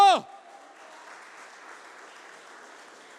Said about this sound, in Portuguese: Aleluia! Aplauda o Senhor bem alto.